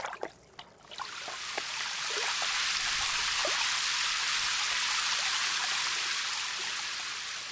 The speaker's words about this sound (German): Wasser gibt es draußen in der Natur. Es fällt vom Himmel als Regen.